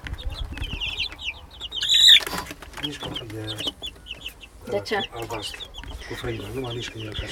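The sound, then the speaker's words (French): A flock of 26 three-week-old chickens cluck and peep in a steady, busy stream of short calls, with a burst of louder flapping and squawking midway while people talk intermittently over the flock. “Comment on dit poule en roumain”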